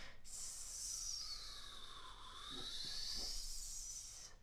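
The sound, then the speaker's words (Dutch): A voice imitates wind whistling around a building by hissing on the letter S at varying pitches, a long, steady hiss whose pitch dips and rises again, sustained for several seconds. “dat is dat die wind zo om een, om een gebouw heen suist of zo.”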